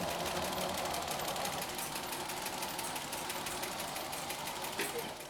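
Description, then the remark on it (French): A typesetting machine runs steadily as its matrices drop while an operator types text, dropping spacebands, to the end of the line: a rapid, even clatter of small metallic clicks over a continuous mechanical whir, with one slightly louder knock near the end. “Il faut s'assurer que les matrices descendent, donc on, entend le bruit.”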